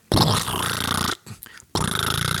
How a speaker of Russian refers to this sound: Да, дисковый телефон.